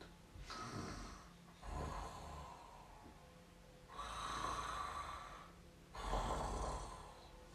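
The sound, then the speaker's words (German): Slow, heavy breathing of a sleeping creature, with four long, rasping breaths drawn in and pushed out in a steady sleeper's rhythm. Fairly loud, with no talking. “Dann hat er von ganz weit weg hat er ein Schnaufen gehört.”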